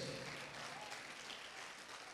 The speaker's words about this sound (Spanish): Dele palmas al rey, hermano.